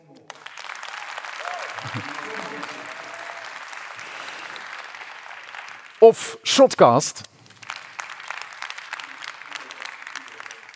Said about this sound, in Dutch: Oké, we hebben een derde punt te verdelen. Nog één keer luid applaudisseren voor bijvoorbeeld Mint